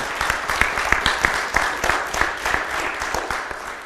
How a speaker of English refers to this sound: Can you give her a hand?